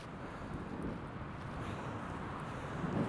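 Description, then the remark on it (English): A steady, rumbling roar of ocean surf pounding the beach under a southerly wind of about 40 knots at around 12 °C, continuous and fairly loud throughout, with gusty buffeting low in the mix and no voices. “The ocean is pounded”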